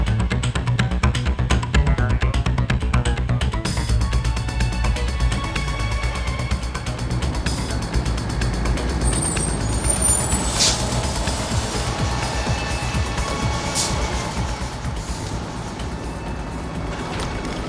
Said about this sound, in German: Erst als der Mann mit seinem schwarzen Cadillac weggefahren war, setzte Bob sich in Bewegung und fuhr mit dem Bus zurück zum Hafen.